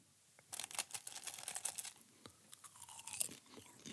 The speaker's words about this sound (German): esse jetzt noch ein bisschen Popcorn.